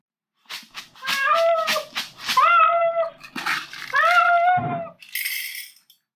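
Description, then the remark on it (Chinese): A cat named Meizai (妹仔) meows loudly several times, with three drawn-out, high, wavering meows plus some shorter chirps, followed by a brief hissing burst at the end. “刚刚叫的是妹仔。”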